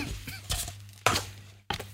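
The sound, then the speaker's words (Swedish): Someone takes a big bite of cinnamon bun number one, a fairly large bun, and chews. There are a few short muffled tearing bursts, the middle one strongest, over a low steady hum with no talking. “Då tar jag en rejäl tugga här.”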